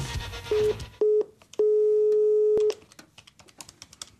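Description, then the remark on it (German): A telephone line tone sounds three times during a call to ThyssenKrupp, two short mid-pitched beeps followed by one long steady beep, clear and alone, then only faint clicks and low noise remain. “Anruf bei ThyssenKrupp.”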